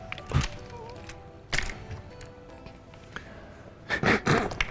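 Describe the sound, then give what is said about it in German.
Dice clatter onto a table, rolled for a performance check: a sharp knock, another a second later, then a quick burst of rattling clacks as they tumble and settle, with no talking. “Ähm, also erstmal erst würfel bitte auf äh, ähm, Auftreten.”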